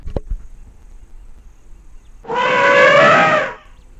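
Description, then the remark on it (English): A great grey elephant trumpets once while making its way to a watering hole in Kruger National Park, a loud, brassy blast lasting just over a second that wavers in pitch, following a quiet stretch with a couple of faint taps at the start. “That's the sound of a magnificent, great grey elephant making his way to a watering hole as he traipses by on a safari in Kruger National Park.”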